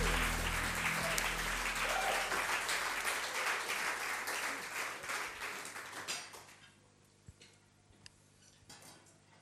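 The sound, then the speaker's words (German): Dense audience applause in Biel as three guests come on stage, lasting about six seconds, then thinning out into a few scattered, fading claps before stopping. “Und gebt ihnen einfach ganz, ganz, ganz einen herzlichen Bieler Applaus heute Abend, wenn sie auf die Bühne kommen.”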